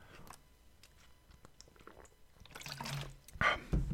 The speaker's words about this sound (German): Und ich muss mal eben kurz einen Schluck Wasser trinken, weil ich merke, meine Stimme, die wird gerade sehr trocken.